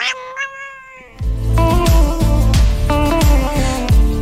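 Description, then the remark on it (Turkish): A cat lets out a single drawn-out, clear meow before loud rhythmic music with a steady thumping beat cuts in and takes over. “Gel biraz daha miyavla bak.”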